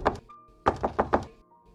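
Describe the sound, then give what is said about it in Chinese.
Heavy, forceful knocking on Madame Mariani's door in Paris on the night of 17 October 1849: one loud thud, a short pause, then four rapid, evenly spaced hard blows, each a deep booming thump with no voices. “一八四九年十月十七日夜里，玛利亚尼夫人突然被一阵激烈的敲门声惊醒。”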